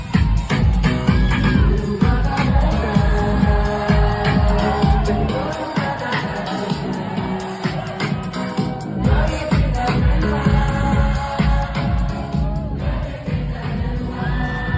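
A large club crowd sings along loudly over thumping house music without dancing, many voices merging into a dense, steady roar that holds for the full length with brief cheers rising in places.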